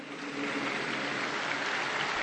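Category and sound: crowd, crowd applauding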